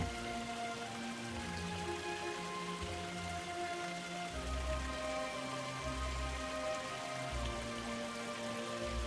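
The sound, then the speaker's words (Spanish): A waterfall pours in a steady, continuous rush of falling water, broad and hissing, with soft sustained tones humming underneath and occasional low rumbles swelling through. “Una vez ya has disfrutado suficientemente de la cascada, sales del estanque y te diriges a los rayos del sol.”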